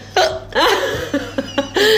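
Several sharp hiccups from a woman who breathed wrong punctuate a couple of seconds, with short gasping breaths and a bit of laughter-like vocalizing between them, at an irregular rhythm.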